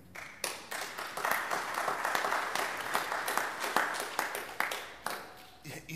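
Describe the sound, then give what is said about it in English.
A large church audience applauds itself, clapping steadily for several seconds, a dense spread of overlapping hand claps at moderate, even loudness that tapers off near the end. “Give yourselves a hand again.”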